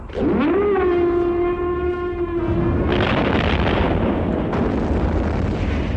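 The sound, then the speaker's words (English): A loud horn-like blast, the final blast, swells up and holds a steady low tone for a couple of seconds as sparks fly. It then gives way to a roaring explosion whose rumble and crackle continue to the end. No one speaks. “He tells the team to watch as the final blast sounds and hopes beyond hope that none of them are epileptic.”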